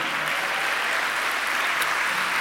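An audience applauds steadily, a dense, even wash of clapping hands that holds at a fairly loud, constant level throughout, with no voices standing out, as a Christian audience claps for Christ during a sermon.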